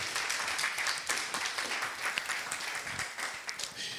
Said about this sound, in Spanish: Dale un fuerte aplauso porque vamos a entrar a lo nuevo.